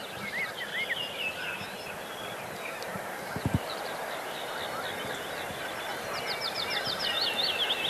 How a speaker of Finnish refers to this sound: Pajulintu. Pajulintu oli siinä, joo.